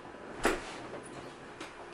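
door being closed

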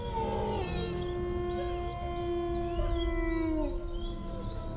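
fox howling

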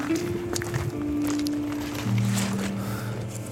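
footsteps walking

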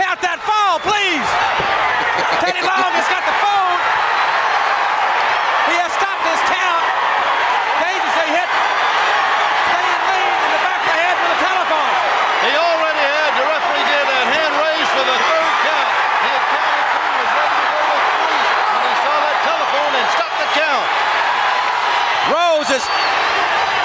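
wrestling arena crowd cheering

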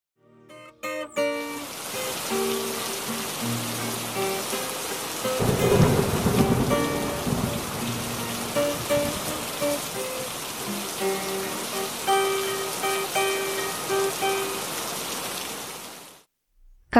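heavy rain with thunder

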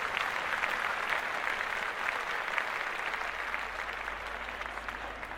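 people clapping hands

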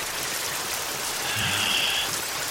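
rain falling

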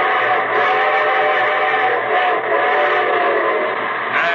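approaching train with whistle

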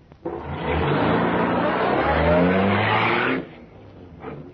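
car engine revving

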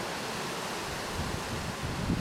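strong wind blowing outdoors

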